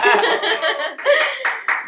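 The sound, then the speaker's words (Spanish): An audience bursts into applause mixed with cheering and laughter, a loud, dense wash of voices and clapping that swells and pulses for a couple of seconds. “Aplausos otra vez.”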